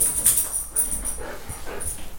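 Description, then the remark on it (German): A dog pants in quick, breathy bursts, with soft whimpering whines mixed in over about two seconds; no one speaks. “Klaas ist irgendwie irritiert von dem Hund.”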